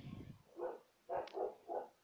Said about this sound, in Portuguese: Eu acho que vai aparecer meu cachorro latindo, mas vida que segue.